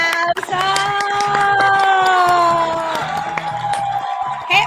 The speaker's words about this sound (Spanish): ¡Eso! ¡Un aplauso!